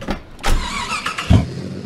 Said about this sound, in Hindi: गाड़ी उठाई परिवार को बैठाया और चल दिए गंतव्य स्थान की ओर यानी डेस्टिनेशन की ओर यानी कि पार्टी की ओर